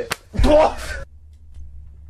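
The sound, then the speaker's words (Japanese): A single sharp, hard slap across the face cracks out, followed right away by a loud, strained vocal outburst, then everything falls to a faint low hum. “鬼ビンタ鬼ビンタ鬼ビンタだからなんでその流れでやろうとしてんの”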